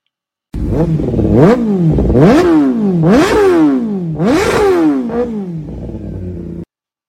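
A superbike engine revs hard and loud, pitch climbing and dropping in repeated sharp surges, four or five aggressive throttle bursts in quick succession, with no voices.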